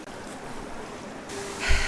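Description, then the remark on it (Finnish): Water sloshes and churns steadily as someone swims, with a heavier splash near the end. No voices are heard. “Ja pikkuhiljaa alat menee silleen, että sun pää menisi kokonaan veden alle.”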